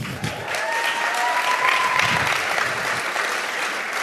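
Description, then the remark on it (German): Steady, dense applause from a sizable audience fills the whole stretch, a broad wash of clapping at consistent loudness with faint whistles or cheers rising briefly above it. “Ein Applaus”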